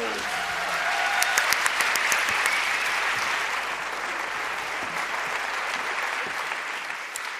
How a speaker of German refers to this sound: Und einen riesen Applaus.